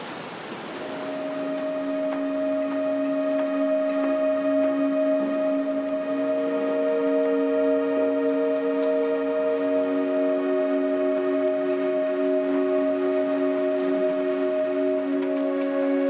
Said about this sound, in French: Euh, si on écoute bien quand il y a du vent, on a le bruit, le bruit du vent dans les mâts. Qu'on est vraiment à la fois en ville parce que c'est le cœur de la ville et en bord de mer avec, avec tous ces bateaux, tous ces bateaux autour de nous.